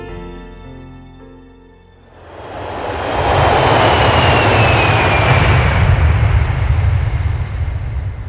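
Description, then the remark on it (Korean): A steady tonal hum gives way to a swelling, broad engine roar that builds after a couple of seconds and holds loud, like a plane powering up for takeoff; the plane departs at 7:30 pm at night on a flight to Vientiane airport in Laos. “비행기는 밤 7시 30분에 출발했다.”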